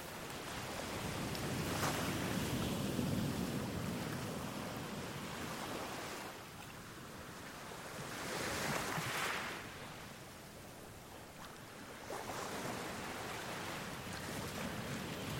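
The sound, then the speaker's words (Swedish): Sea waves wash in and pull back over small stones at the water's edge, with a steady broad rush swelling and easing in slow surges and brighter hissing bursts as the water drains away. No voices. “Du lägger märke till att de små stenarna du står på följer med när havet drar sig tillbaka.”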